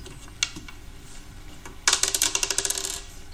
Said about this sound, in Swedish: Så jag tänker vi eh, kör vår vanliga tärningsrull.